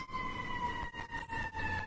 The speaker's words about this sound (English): Wait, time out. Was that an ambulance?